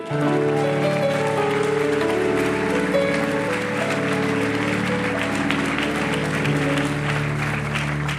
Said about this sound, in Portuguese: Amém? Vamos aplaudir a Ele?